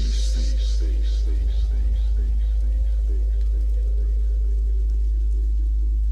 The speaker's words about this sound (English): It'll show you you're alive. And listen to this fat bass that will send the blood coursing through your veins.